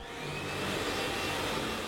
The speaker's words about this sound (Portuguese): Para completar o frenesi sonoro, secadores a todo vapor esvoaçavam os cabelos em rumorosos turbilhões de ar quente.